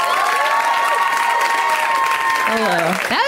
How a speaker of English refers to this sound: a great round of applause for you.